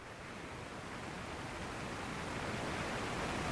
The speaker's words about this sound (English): It's a, it's, a, it's, a, it's a, crappy little shower right now.